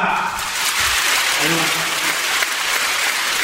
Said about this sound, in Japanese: この後ろでシャシャシャシャシャってなってるのがまさにこのハリセンの音ハリセンの音なんですおこれはなかったね確かに去年のねそうなんですよね、ね、これがもう有明アリーナ中にこうもう響き渡っている